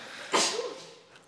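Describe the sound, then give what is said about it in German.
A single sharp sneeze bursts out, a quick breathy explosion that fades within a second, heard alone against quiet room tone. “Gesundheit”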